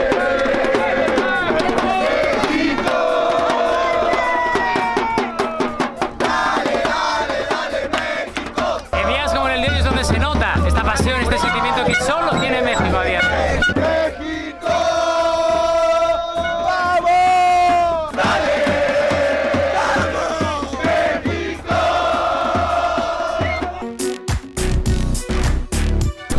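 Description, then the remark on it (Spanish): A huge stadium crowd of Mexico football fans chants the protest shout "fuera Tata" against the coach Tata in loud, rhythmic unison, voices swelling and repeating for the whole stretch, with scattered yells and a burst of sharp clatter near the end. “queremos al Tata y ahorita se va a mostrar con un grito, fuera Tata.”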